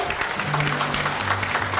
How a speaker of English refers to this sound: a hand clap of praise. Ain't he worthy to be praised? Come on, we need to do better than that.